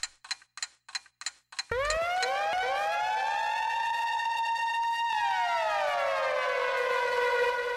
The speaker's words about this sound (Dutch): Ik zet de klok aan, het alarmdingetje gaat en dan ga jij je ding doen.